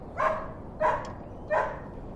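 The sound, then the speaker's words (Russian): A dog barks three times in an even rhythm, each bark short and sharp with a slight tail, fairly loud, with a quiet background and no talking. “Хороший пес.”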